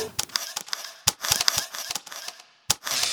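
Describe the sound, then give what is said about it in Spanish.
A rapid series of sharp mechanical clicks, like a camera shutter firing repeatedly, with an irregular rhythm, a brief pause, then one more crisp click and a rustling tail. “La posición, encuadre de la cámara y el clic son determinados en un instante.”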